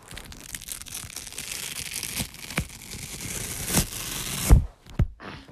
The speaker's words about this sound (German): Und jetzt hört ihr einfach, wie ich einen Aufkleber von meiner neuen Matratze abreiße.